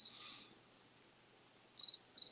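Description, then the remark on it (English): Crickets chirp in short, high-pitched bursts, one at the start and two more near the end, fairly soft against a quiet background with no one talking. “There's the crickets again.”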